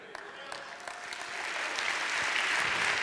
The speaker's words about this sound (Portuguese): A moçada que aplaudiu. Foi os moços que aplaudiram.